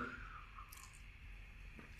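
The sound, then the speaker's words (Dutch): A quiet, quick sip of water: soft wet mouth clicks and a faint swallow, then a sharper click right at the end, with no talking. “Even een korte slokje water.”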